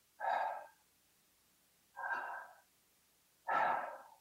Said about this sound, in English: So what what the term Yahweh is is the sound of breathing. So if you inhale and then exhale.